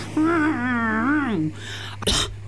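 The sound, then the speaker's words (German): A drawn-out, wavering vocal sound, like a strained whine, gives way to one short, sharp cough from the Schrettle, a creature in the story, as it reaches the other side of a road, with a low steady hum throughout. “Hustend hat das Schrettle die andere Straßenseite erreicht.”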